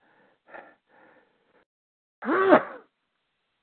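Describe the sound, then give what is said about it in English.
A single loud, voiced sneeze bursts out after a few faint, breathy inhales, ending abruptly; a brief click follows at the very end. No talking. “Bless you.”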